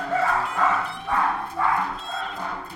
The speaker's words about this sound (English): There are some dogs now barking.